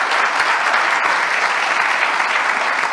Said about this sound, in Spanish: Bueno, denle un fuerte aplauso al Señor Jesús. Amén.